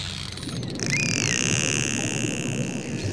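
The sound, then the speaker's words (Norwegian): Dolphin echolocation clicks patter rapidly in the first half-second as the dolphins use the clicks to find their prey, then a short high whistle, which the dolphins use to communicate with one another, sweeps up and down over a steady underwater hiss and low rumble, with no voices. “And so these dolphins are communicating to one another through their whistles, and then they've got the clicks, and the clicks are how they're finding their prey.”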